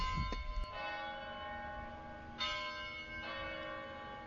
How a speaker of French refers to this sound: Les cloches au tintement cristallin s'invitent aussi à la fête. Elles sonnent tous les quarts d'heure. La plus majestueuse d'entre elles reste celle de la cathédrale.